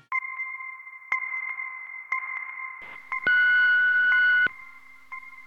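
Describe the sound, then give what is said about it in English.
Telephone dialing tones on a call to the Amelia Project: a steady electronic dual-pitch tone with a soft click about once a second, broken midway by a louder, harsher tone burst lasting about a second. No voices. “You've reached the Amelia Project. This phone call isn't happening.”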